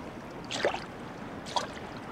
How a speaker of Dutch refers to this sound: Kabbelend water. Ja, joh, dan ben je veel te druk geweest dit weekend, als je dit niet kent.